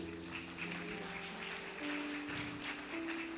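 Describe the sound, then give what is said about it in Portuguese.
An audience applauding God in a steady, dense wash of clapping that holds for several seconds, with sustained keyboard notes droning underneath. “Aplaude a Deus, aplaude.”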